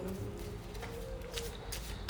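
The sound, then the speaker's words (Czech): Playing cards slip and fall from a deck, making a few soft, papery slaps and flutters at irregular moments over a faint low hum. No one speaks. “Padají karty z balíčku.”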